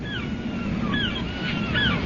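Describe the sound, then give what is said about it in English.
Steady rushing surf of ocean waves washing onto a beach shore, a continuous broad roar at moderate level, with a few thin, high calls of seagulls circling overhead sounding faintly above it. “I listened to the waves beating against the shore.”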